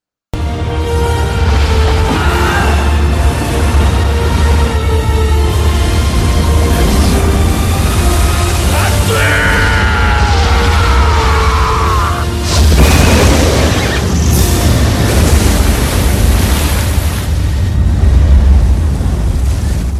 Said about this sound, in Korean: 모세의 손이 높이 들리자 지금껏 벽처럼 서 있던 홍해 바닷물이 갑자기 무너져 내리며 갈라졌던 땅을 덮기 시작합니다.